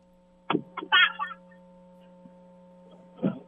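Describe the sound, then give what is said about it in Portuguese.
A woman slaps a man on the leg, a sharp slap followed by a brief vocal reaction. After a pause comes a second, similar smack, all over a steady low electrical hum. “dá, dá um tapa nele agora pra gente ouvir, dá um tapa.”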